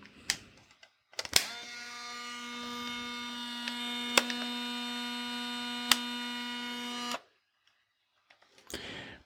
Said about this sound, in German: Die erste Kamera, die ihr gehört habt, das war eine Fujifilm, eine Neo Classic Instax Mini 90.